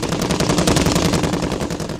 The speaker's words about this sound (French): Immédiatement, les mitrailleuses crépitèrent, lâchant sur la proie une multitude de petits explosifs qui atteint leur cible presque immédiatement.